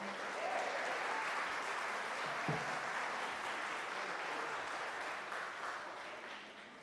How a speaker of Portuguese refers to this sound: Muito obrigado. Uma salva de palmas para ela.